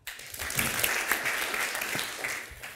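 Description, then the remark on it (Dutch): An audience at an in-person book event claps steadily, the dense patter of many hands holding at a fairly even level throughout, with no voices standing out above it. “En ik wil graag jullie vragen om een hartelijk applaus, want dat kan weer, nu het niet virtueel is,”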